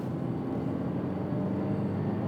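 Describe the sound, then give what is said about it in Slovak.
A Dacia car engine is revved higher, droning steadily as a dense low rumble with a thin, faint whistle riding above it; the level stays even throughout, and no one speaks. “No vytočím ho viacej, tak uvidíš ten pišťavý zvuk, ktorý dáva.”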